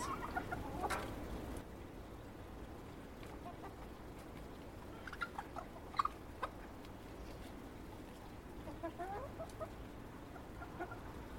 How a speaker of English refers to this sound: have got a pretty big coop. I can stand up in it. It is about six, seven foot long and about three foot wide. So they've got plenty of room for the size of the chickens that I've got. And they're, they're happy. So that's all you can ask. Happy hens.